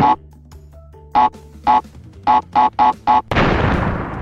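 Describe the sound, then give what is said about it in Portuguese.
A video game TNT crate counts down with a series of loud, tonal beeps that quicken toward the end, then bursts into a sudden, roaring explosion that keeps rumbling to the end. “Sim, o, o, barulhinho sim, sim. Da, do TNT é icônico, cara.”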